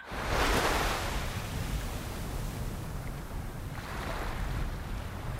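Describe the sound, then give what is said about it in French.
Storm waves crash at the seafront of Le Havre, France, under steady, roaring wind, with two broad surges of breaking surf rising and fading over a constant low rumble. No one speaks. “Ça doit être la tempête.”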